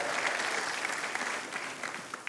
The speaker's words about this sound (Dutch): Ton, zullen we hem applaus geven?